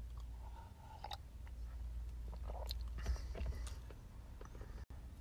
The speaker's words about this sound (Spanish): Llevaba un sorbo a mi café.